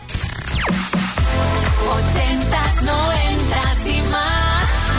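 A 1998 dance-pop song plays loud and full on the Kiss Music Box show of Kiss radio, opening with a swooping synth sweep before a steady four-on-the-floor kick drives on under bright synths and a melodic vocal line.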